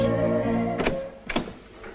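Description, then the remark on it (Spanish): A man opens the door of a dimly lit room: a steady hum fades out as two sharp knocking thunks sound from the latch and frame, followed by a fainter soft bump. “Más tarde, un hombre de unos 50 años con gafas abre la puerta de una habitación con poca luz.”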